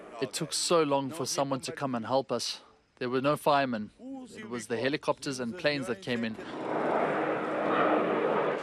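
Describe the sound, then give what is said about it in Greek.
A man speaks briefly, then a loud, steady engine roar of firefighting aircraft passing overhead takes over and fills the last couple of seconds. The aircraft have been sent to help fight a wildfire in the Odemira area. “Στο σημείο έχουν σπεύσει και πυροσβεστικά αεροσκάφη για να συνδράμουν.”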